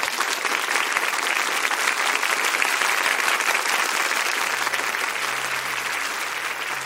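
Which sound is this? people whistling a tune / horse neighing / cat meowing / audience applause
audience applause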